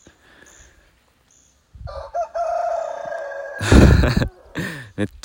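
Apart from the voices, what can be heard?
chicken crowing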